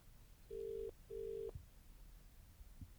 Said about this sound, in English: The phone's ringing.